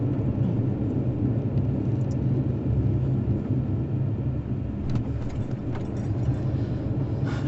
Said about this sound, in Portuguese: Nossa, é com tanto carro aí, Todo acho que vai vem... ficar caro, hein? Todo mundo vem de carro comer feijoada.